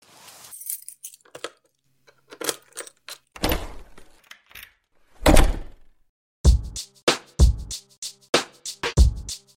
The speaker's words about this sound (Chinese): 到第二天早上，突然就迷睡得迷迷糊糊的时候，有一个女生开了门进来，而且是拿的钥匙。